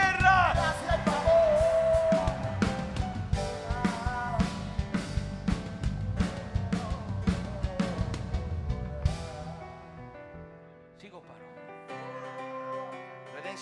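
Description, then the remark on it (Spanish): An audience shouts and whoops loudly together for about nine seconds over a musical backing, then the crowd noise dies away, leaving sustained instrumental tones. “Alguien va a dar un grito de”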